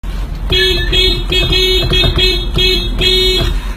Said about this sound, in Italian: magari mentre ti rechi a lavoro e sei purtroppo fermo nel traffico o magari al decimo semaforo rosso di fila e cerchi di mantenere la calma, reprimendo come un mostro dentro di te l'istinto primitivo del suonatore seriale di clacson